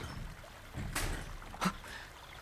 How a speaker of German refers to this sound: In diesem Moment vernahm er aus dem Inneren des Gästehauses ein seltsames Knarren.